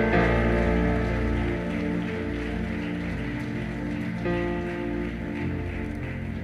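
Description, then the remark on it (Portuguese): A church audience applauds God in a dense, steady wash of clapping that keeps going for the whole stretch, with sustained keyboard chords holding underneath. “Agora dá um forte aplauso a Ele.”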